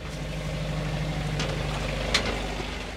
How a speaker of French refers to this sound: On se dirige à présent dans l'antre de Tara, la salle des machines, où Loïc Codan, chef mécanicien, est en train de démarrer les moteurs. Là, on est dans la salle machine, donc on est sous le carré, la pièce de vie du bateau.